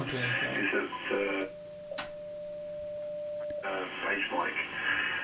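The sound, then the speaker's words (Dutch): An amateur radio transceiver being tuned on the 40-meter band: after someone speaks, a sharp click brings in a steady, pure whistling tone over faint static for under two seconds, then the voice returns. “Het is echt, uh, ik kan hem nog even tunen zometeen.”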